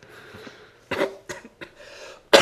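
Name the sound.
coughing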